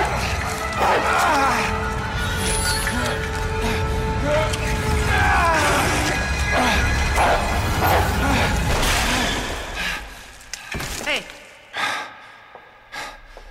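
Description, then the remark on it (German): A dog snarls and growls viciously as it attacks a person in a garage, loud and continuous, mixed with the person's strained gasps and grunts of struggle, then cutting off into a few sharp, sporadic thumps. “Leon drehte sich um und sah einen zähnefletschenden Hund.”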